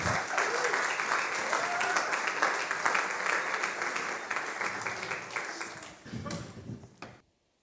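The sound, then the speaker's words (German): An audience applauds for a focus group that is about to perform a theatre piece, in a dense, sustained burst of clapping that stays fairly loud for about six seconds, then thins out with a few scattered claps before stopping abruptly. “Ein ganz, ganz großer Applaus für die Fokusgruppe.”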